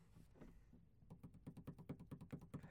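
A soft, quick drum roll tapped out by hand, a steady run of light knocks that starts after a brief quiet moment and keeps going, fairly faint, with no talking.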